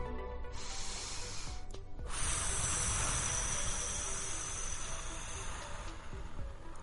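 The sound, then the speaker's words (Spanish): A deep breath taken during a mindfulness exercise: a long, airy inhale, a brief pause, then a longer, steady rushing exhale, fairly loud and breathy, with no talking. “Viene respiración profunda.”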